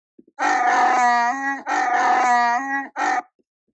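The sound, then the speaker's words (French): The original growling roar of the film creature Chewbacca: two long, loud, throaty howls with wavering pitch and a short final burst, preceded by a couple of faint clicks. No one speaks. “Bah, attends, je bosse mon émission, on va écouter Chewbacca.”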